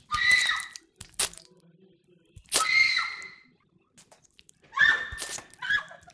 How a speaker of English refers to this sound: Chewing is fast, pummeling motion. Powerful joints pushing in. Easier when he is crushed, when the bones are broken.